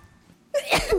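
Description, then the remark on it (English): A single loud sneeze from a person with allergies bursts out after a near-silent moment, a sharp intake followed by a harsh, breathy explosive release that trails off quickly. “Gesundheit.”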